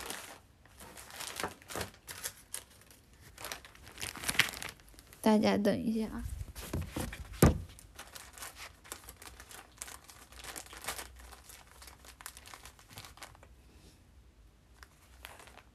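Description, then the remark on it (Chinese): A person takes a tissue to blow their nose; the tissue paper crinkles and rustles in a long series of dry, irregular crackles, swelling to a louder burst of handling midway, while the person says a few brief words. “等一下啊，我拿张纸，我老擤老擤鼻涕不太好，是不是？”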